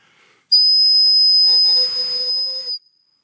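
A shrill whistle is blown in one steady, loud blast lasting about two seconds, with a bright piercing tone and a breathy hiss underneath, then stops abruptly into silence.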